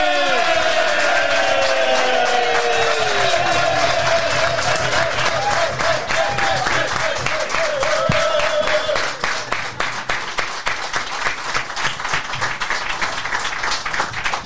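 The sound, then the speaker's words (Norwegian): An audience bursts into loud, sustained applause for player number five, dense rapid clapping with whoops and cheering voices over the first half, then steady clapping that continues on its own to the end. “Og gi en varm applaus dere til spiller nummer fem,”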